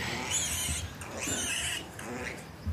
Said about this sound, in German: Jetzt ist eins der Ferkel aufgewacht, klettert über den hm, Bruder vielleicht oder die Schwester jetzt drüber und lässt sich da hinten in der Ecke aber dann wieder nieder, um da wahrscheinlich weiter zu schnarchen.